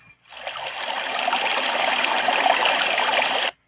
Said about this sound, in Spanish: O tal vez el sonido del río.